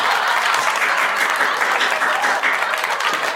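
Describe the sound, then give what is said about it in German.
A small group claps together in a steady, dense patter of hands for a few seconds, holding an even loudness throughout with no voices over it. “Sollen wir nochmal klatschen?”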